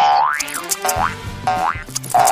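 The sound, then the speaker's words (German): A quick run of springy cartoon boing sounds, each a wobbling pitch sweep, bouncing one after another as the sound effect of a hopping hare. Loud and clear, with no talking. “Also achten Sie in der Osterfolge insgesamt dreimal auf den Hasen und so hört er sich an.”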